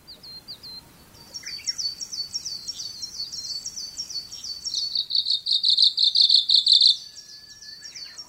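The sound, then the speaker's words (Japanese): A Kamchatka leaf warbler sings a quick, high-pitched, rhythmic song of short chirping phrases repeated over and over, a distinctive 'cho-cho-ri' rhythm, growing louder toward the end, with no voices over faint outdoor background noise. “手がかりはこの鳴き声ですちょちょりちょちょりちょちょりという独特のリズムと声こそがオウムシクイの身分証なのです”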